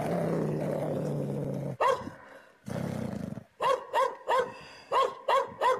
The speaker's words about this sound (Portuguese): Novamente, meu cachorro avança para pegar, late muito forte, parecendo a corrente arrebentar.